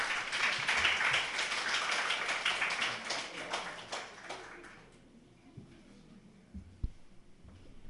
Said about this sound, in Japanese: どんな違学期間だったか、短く証しをお願いしているので、拍手でお迎えしましょう。お願いします。